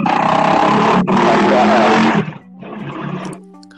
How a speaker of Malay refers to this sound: Eh, hey, motor apa tu?